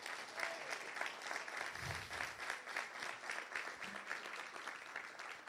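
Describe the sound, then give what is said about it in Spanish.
Sustained applause from a crowd, men applauding the mothers, a dense, steady wash of many hands clapping for several seconds with little variation in loudness and no clear speech. “¿Cuántos hombres le dan un aplauso a esas madres?”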